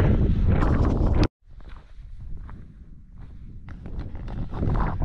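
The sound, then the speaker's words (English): Strong wind on a mountain summit buffets the microphone in a loud, steady low roar with gusty surges, briefly cutting out before rumbling on with occasional rustles and bumps. “It's a little windy, but we made it to the summit.”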